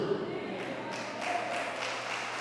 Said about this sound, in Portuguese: Aplauda mesmo ao Senhor.